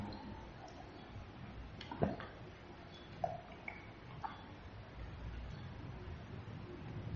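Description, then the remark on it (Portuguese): Someone quietly takes a drink of water: a few soft clicks and gulps spaced a second or so apart over a low background hum, with no talking. “Deixa eu tomar água”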